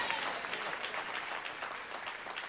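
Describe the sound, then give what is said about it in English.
An audience claps steadily, a dense wash of many hands with no pauses, fairly loud and bright throughout, with no talking over it. “I, if you're not clapping, I don't know if it is you or not.”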